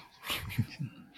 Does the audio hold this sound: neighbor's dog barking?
yes